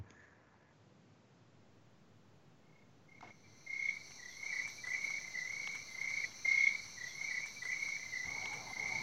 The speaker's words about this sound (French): Si tu vis au Cameroun, tu connais sans doute ces bruits de grillons et de grenouilles.